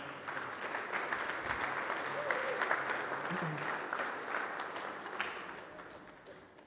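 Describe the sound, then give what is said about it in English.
An audience applauds steadily, a dense patter of many hands clapping at once that holds for several seconds before slowly tapering off, with a brief throat-clear heard partway through. “Yeah, let's give them a clap.”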